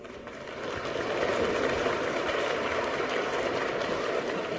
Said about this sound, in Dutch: Het applaus telt niet mee voor de prijzen, maar u hoort het wel, de zaal ondersteunt de vraag.